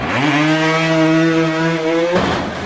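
A small motorbike engine holds a steady, loud, buzzing drone for about two seconds, then cuts off abruptly. No one speaks over it.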